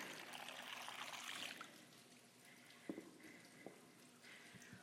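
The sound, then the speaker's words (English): Water pours in a steady, hissing stream for a moment, then trails off into a softer trickle with a few small clinks and drips, fairly quiet, with no talking. “What do you think of when I say poured? Perhaps you think of your baptism.”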